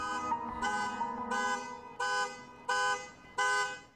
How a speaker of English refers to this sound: I think I'd want to throw the alarm across the room at this point. I don't know why they're praising this person as he done the impossible. He's just playing music over a car horn.